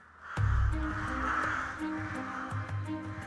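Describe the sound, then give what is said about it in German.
Harsh, raspy crow caws ring out repeatedly, loud, over a busy outdoor background with a low rumble, with no one talking. “Die Wikinger erklärten Rabenvögel zu ihrem Schlachtenvogel”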